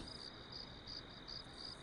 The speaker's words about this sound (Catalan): Només queden els grills, els maleïts grills. Segueixen aliens a tot, introbables i per això indestructibles els grills i els conills quiets i silenciosos.